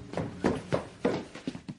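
Quick footsteps of a person running up the stairs inside a house, about seven dull, thudding steps in a fast, slightly uneven rhythm, moderately loud with no voices.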